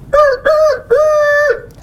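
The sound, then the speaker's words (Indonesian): A person imitates a rooster's crow in three bursts, two short calls followed by a long drawn-out one, loud with clear harmonic tones, while telling a story to children, with nothing else in the background. “halo nak kakak mau bercerita ayam berkokok”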